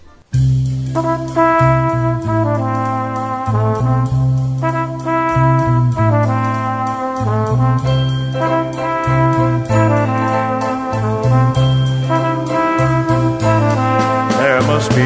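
A song plays loudly and steadily throughout, with full instrumental backing, sustained chords and a repeating low bass pattern, with no talking over it.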